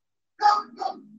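dog barking

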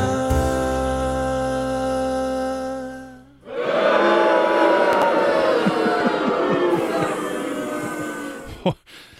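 crowd booing sound effect

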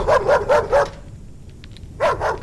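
dog barking loudly

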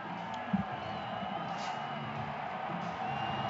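stadium crowd cheering

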